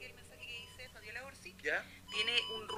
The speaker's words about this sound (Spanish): este es un código Morse que son varias letras que todavía no se ha logrado descifrar qué son exactamente.